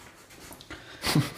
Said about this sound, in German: Was ist? So ein Hund.